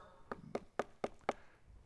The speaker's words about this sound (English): He knocked at the door in the gate, and the servant girl named Rhoda came to open it.